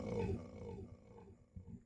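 A deep, rumbling lion roar swells loudly at the start and fades into low grunting, followed by a brief second growl near the end, with no voices present.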